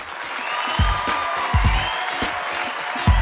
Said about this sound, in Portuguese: Uma salva de palmas para o nosso convidado